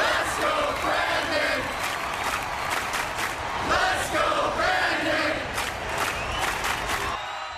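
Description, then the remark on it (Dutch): A large crowd chants the slogan "Let's go Brandon" loudly in unison in a political campaign ad, voices rising and falling in a steady rhythmic pattern. The dense roar of many people fills the whole stretch, with scattered shouts over it. “En het enige dat je hoort is een inmiddels bekende kreet.”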